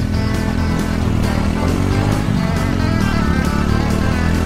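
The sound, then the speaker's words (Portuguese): A blue and yellow XT600 Ténéré motorcycle engine is started and runs steadily and loudly, its low rumbling pitch shifting slightly as it revs, with no voices present. “Ao ligar a moto”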